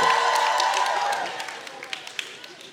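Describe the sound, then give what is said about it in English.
An audience cheers and claps as the short people are asked to make some noise during a sermon, a broad wash of crowd noise with scattered sharp claps that thins out and fades over a few seconds. “Uh, all my short people make some noise real quick. Let me hear from you.”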